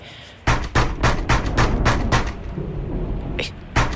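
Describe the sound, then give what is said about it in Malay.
Loud, sharp knocking on a door at night: a quick, steady run of about seven raps, a brief lull, then two more solid knocks. “Siapa pula ketuk pintu malam-malam ni?”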